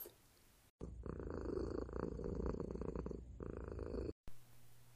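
A cat purrs, a steady, rumbling drone lasting several seconds with a slight pulsing rhythm, then cuts off abruptly.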